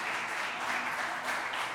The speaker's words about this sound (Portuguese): Pode aplaudir bem forte ao Senhor, meu irmão. Aleluias!